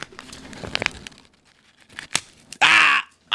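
Paper crinkling and small crackles as a Marlboro cigarette pack is opened, then one loud, rough rip of thin paper lasting under half a second as the pack's inner paper liner is torn. No voices.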